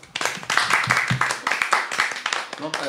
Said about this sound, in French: Et donc, c'est sur ce mystère qu'on clôt, en, tout cas, la partie thématique de cette partie 1. Et on peut s'applaudir, je pense.